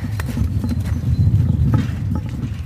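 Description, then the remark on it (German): Heavy hooves of several Bactrian camels thud and scuff in an irregular walking rhythm as they plod over the ground of their enclosure, with a low rumbling background throughout. “Ah, es kommen auch schon ein paar ganz interessiert.”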